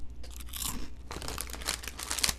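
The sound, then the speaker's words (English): Crunching of a Cheez-It cheese cracker from a packet being bitten and chewed, a series of crisp, crackly bursts over a couple of seconds with no talking. “Here's the sound of one crunch.”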